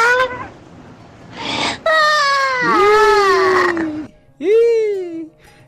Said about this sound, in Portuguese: Ixi, já tá chorando?